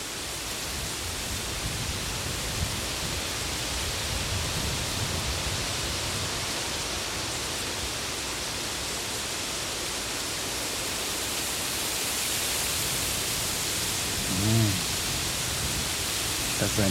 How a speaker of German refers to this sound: Wie klingt eigentlich Schilf?